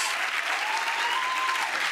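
A crowd applauds steadily, a dense, continuous patter of many hands clapping at a fairly even level, with a faint whistle or cheer drifting through it.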